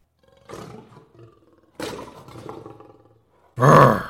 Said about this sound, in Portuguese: tudo bem, rosnou o leão.